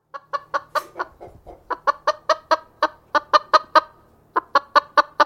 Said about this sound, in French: Oui, ce sont des poules.